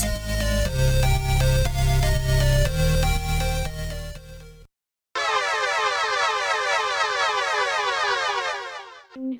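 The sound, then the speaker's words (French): A loud mechanical siren of a time machine blares in stepped, horn-like tones, cuts out briefly, then returns as a rapid, warbling wail sweeping up and down until the end. No one speaks. “Entendant la sirène de la machine, les enfants du futur, enfin du présent, se précipitent dans la salle.”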